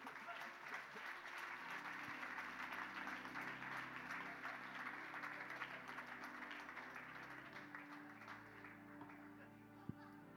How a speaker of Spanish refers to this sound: Alábalo. Uh, denle un aplauso a Cristo, por Dios.